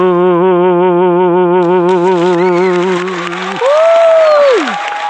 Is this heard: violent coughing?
no